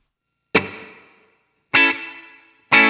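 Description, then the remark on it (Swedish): A spring reverb effect on an instrument: three loud, sharp hits roughly a second apart, each leaving a bright, lingering tail that slowly decays. No one speaks. “Man får lite grann av det här flutter, eh, alltså reverb, alltså spring, fjädergrejen så.”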